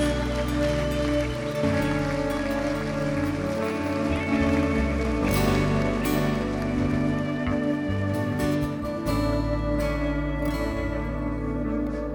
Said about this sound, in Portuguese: Igreja, se você viu alguém fazer essa oração agora, cumprimente essa pessoa enquanto nós aplaudimos ao Senhor por esse que é o maior milagre de todos em nome de Jesus.